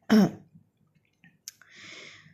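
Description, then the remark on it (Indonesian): A sharp, loud cough bursts out at the start, followed by a pause with faint clicks and a raspy, breathy throat-clearing sound near the end. “aduh nggak enak banget ya sorry ya kuping lo kayaknya agak sedikit kebuka ya jadi kayak jebol sedikit gitu kayak gue batuk jebret jebret gitu kayak berasanya gitu gak sih”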